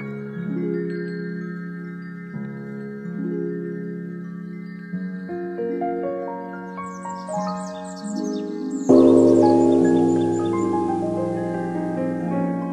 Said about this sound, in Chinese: 钟声响起，请把你的身心完全放松下来。